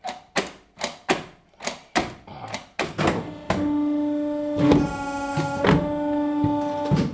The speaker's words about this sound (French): Voilà le bruit du massicot.